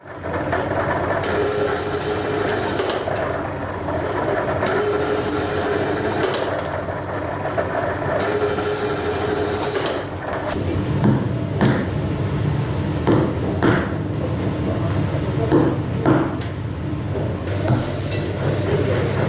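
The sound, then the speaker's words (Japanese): Leatherwork for horse-racing reins, chamfering and edge-beating the cut leather: repeated bursts of scraping or grinding give way to a run of sharp, irregular taps and clinks from hand tools, with no talking. “今週は競争用の手綱を作る音をダイジェストで放送しました今回放送したのは競争用手綱の面取りと面打ちのシーンです”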